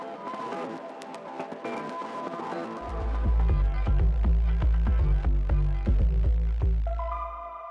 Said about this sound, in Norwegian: skal du få høre den utrolig kule norske elektronikatrioen … med sangen …